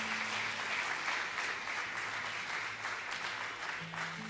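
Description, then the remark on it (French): A crowd in Alsace applauds steadily to welcome a musician, a dense wash of many hands clapping at once, sustained and even for several seconds with a faint low hum beneath, no voices standing out. “Est-ce qu'on peut l'applaudir pour le saluer comme on sait bien le faire en Alsace”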